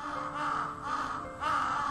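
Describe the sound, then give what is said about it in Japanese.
A crow caws loudly three times in close succession, harsh and nasal, each call drawn out and prominent with no voices around it. “カラスが大きな声で鳴く”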